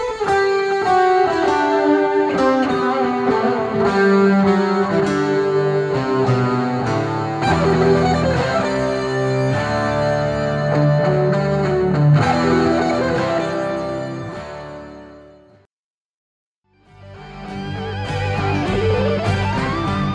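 A rock guitar instrumental of a Christmas carol plays loud and full, its melody ringing over driving accompaniment, then cuts out briefly near the end before the band kicks back in.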